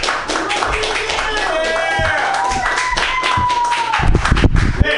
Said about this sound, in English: I'm just gonna run around, and you're gonna clap. You're just gonna know. I, there's a show after us. There's clap, everybody, clap! Yay! yay clap for me! Yay!